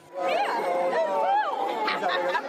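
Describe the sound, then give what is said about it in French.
A crowd that waited since morning greets the arriving royal couple, the Duke and Duchess of Cambridge and Cornwall, with flowers: many overlapping voices calling out and talking at once in a steady, bustling murmur with higher excited shouts rising above it. “Le couple princier s'est vu offrir des fleurs et des salutations chaleureuses de la foule qui attendait leur arrivée depuis le matin même.”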